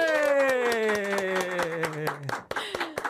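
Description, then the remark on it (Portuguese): A small production team claps in quick, steady bursts for a few seconds while a sustained voice-like tone slides downward over the applause, then a few scattered claps trail off. “Cadê os aplausos Sim. da equipe?”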